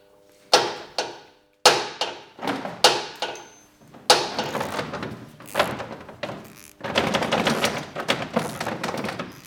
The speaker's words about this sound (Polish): To były dźwięki y, młotka. Trzeba było wyprostować jedno z ramion, które przytrzymuje w spodnich zderzaka.